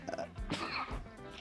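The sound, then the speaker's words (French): A single sneeze, a sudden noisy burst with a snorting, nasal quality, flanked by brief breathy sounds and quiet murmuring. No clear words are spoken. “vos souhaits. Merci.”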